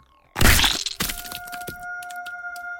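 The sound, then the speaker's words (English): A loud crunching crack as a mite creature is stomped and crushed, followed by a second smaller snap and scattered faint crackles fading out, with no voices. “As soon as I was strong enough to stand, I stomped into oblivion.”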